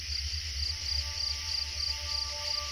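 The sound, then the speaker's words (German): Steady, high-pitched cricket chirping pulses in a regular rhythm, a continuous stridulating trill over a low background hum, with no voices. “Ein abendliches Konzert von Grillen und Zikaden ist wie eine akustische Zeitreise.”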